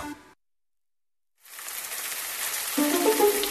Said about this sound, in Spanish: Atención que cae la lluvia sobre la superficie de la pista y es el pistoletazo de salida para que todos los caracoles salgan a la carrera hacia su gran meta que es la comida.